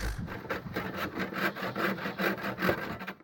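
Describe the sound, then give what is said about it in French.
A hand saw, used to build a treehouse, rasps steadily through wood in quick, even back-and-forth strokes, fairly loud, with no voices. “Pour les bruits de la maison, vous aurez reconnu le bruit de la scie que Gaspard et Ulysse, nos copains avéronnés, utilisent pour construire une cabane dans les arbres.”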